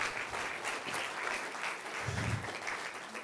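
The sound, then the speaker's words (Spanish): A church audience claps steadily for the Lord, a dense wash of many hands slapping together with no pauses, holding an even, moderately loud level throughout. “Déselo fuerte al Señor, déselo fuerte.”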